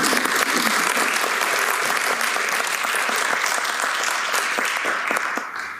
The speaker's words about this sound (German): Mit diesem Applaus äh, verabschieden wir